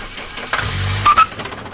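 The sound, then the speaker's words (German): A car engine cranks briefly with a low, labored churning, then a couple of sharp sputtering bursts as it tries to catch, with no talking over it. “Spring jetzt an.”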